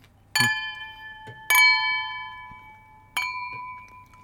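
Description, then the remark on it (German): Three bright, ringing clinks of drinking glasses touching in a toast, each with a sharp onset and a long shimmering decay, fairly loud against a quiet background. “Das ist so ein geiles Geräusch. Voll die wohlklingenden Gläser hier.”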